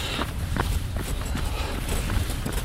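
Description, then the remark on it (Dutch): Steady footsteps walk along a path around a pond at an even pace, each step a soft crunching thud, continuous over a constant outdoor background. “Ik kan lopen hè, en joggen.”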